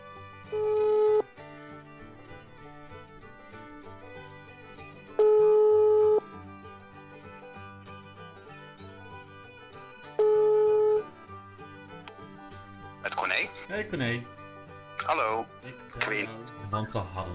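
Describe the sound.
An outgoing phone call's ringing tone sounds three times, each a steady one-second beep spaced about five seconds apart, before a voice comes on the line and people start talking.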